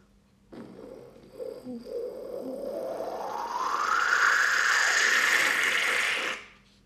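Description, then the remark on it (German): A person vocally imitates a stovetop espresso pot, starting with low gurgling bursts that swell into a steady, rising hiss and sputter, loud, before cutting off abruptly. “Ähm, ja, das war sehr überzeugend, Das war eine also, Espressokanne.”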